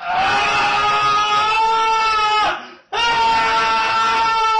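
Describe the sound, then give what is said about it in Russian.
A man lets out two long, loud, sustained, strained screams, a stock clip from a sound-effects library, with a brief pause for breath between them and nothing else in the background. “И вот мы вводим там что-то типа man scream.”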